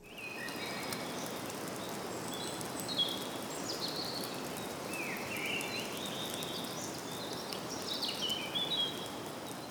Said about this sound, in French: c'est un sous-bois en forêt. On entend le crépitement de l'humidité euh, dans le bois après une journée de pluie